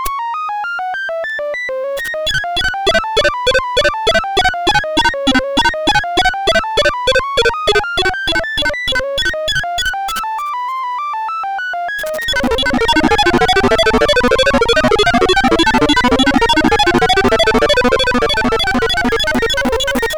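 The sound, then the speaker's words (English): Synthetic test tones for an auditory listening demonstration repeat in a steady pulsing cycle, gliding up and down in pitch, then give way to a loud, dense cluster of overlapping tones. No one speaks. “In the first example, the tones are much lower than the first two, making it easy to hear the standard.”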